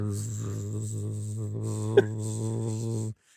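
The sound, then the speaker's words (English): A voice imitates buzzing bees with a steady, low droning hum held for about three seconds, fairly loud, broken by a brief click near the end before it stops abruptly. “it's winter bees.”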